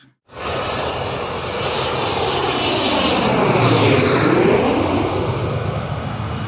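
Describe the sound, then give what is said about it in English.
An airplane takes off, its engines quickly swelling into a loud, steady roar with a high whining tone riding above it, sustained for several seconds. “We are clear for takeoff.”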